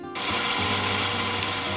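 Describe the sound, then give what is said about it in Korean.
A coffee machine in a quiet café starts up abruptly and runs with a loud, steady mechanical whir and low motor hum, continuous for a couple of seconds, with no voices. “커피 머신 소리가 음악처럼 들리고요.”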